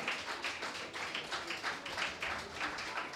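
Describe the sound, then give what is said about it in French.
A crowd claps steadily for Janon, who rises to recite a text, a dense wash of many hands with a faint pulsing rhythm, fairly loud and sustained with no voices on top. “On peut applaudir Janon.”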